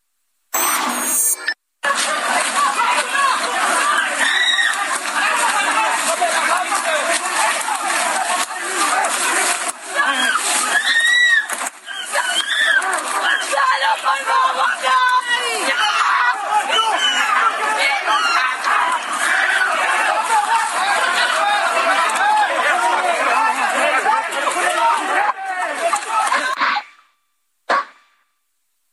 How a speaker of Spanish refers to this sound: Vamos a escuchar un poco, unos segundos bastan, escuchar de cómo se llevó a efecto este operativo hoy y cuál fue la historia, los gritos de desesperación de la comunidad migrante.